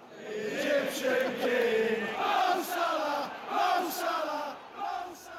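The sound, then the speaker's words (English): A large stadium crowd of Liverpool football fans chants a cheer in unison, a sustained rhythmic swell of many voices rising and falling in waves, loud and continuous throughout. “the cheers of the fans of Liverpool, they will make you stand up and applaud.”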